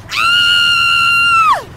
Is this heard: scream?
yes